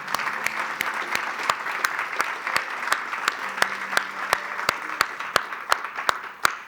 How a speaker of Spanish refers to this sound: Había un hermano que me escribía el otro día y me decía, veo que cuando la gente aplaude, tú también aplaudes. ¿Por qué aplaudes? Porque le estamos aplaudiendo pues a Cristo, si yo soy triste gusano de la tierra, ¿qué puedo estar haciendo yo aquí?